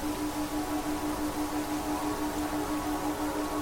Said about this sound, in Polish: No zresztą posłuchajcie sami. Te dźwięki firma reklamuje jako elektroniczną wersję marihuany.